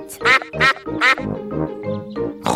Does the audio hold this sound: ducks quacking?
yes